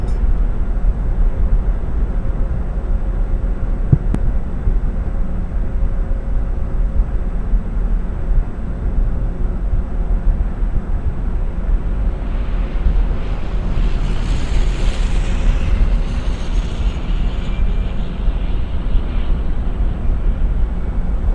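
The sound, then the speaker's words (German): A steady, heavy low-frequency engine rumble drones continuously from an airliner in a video game, taxiing at 50 to the parking position, with a brief rising high whine around the middle. No voices are heard. “So, und jetzt rollen wir mit 50 praktisch zur Parkposition.”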